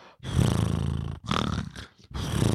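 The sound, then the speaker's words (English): A voice imitates a cartoon character's sleeping snore, three drawn-out rumbling bursts with flapping, buzzing lips, loud, separated by brief pauses. “You know that thing that like Droopy did in the cartoons where the the cartoon characters are sleeping and their lips are like”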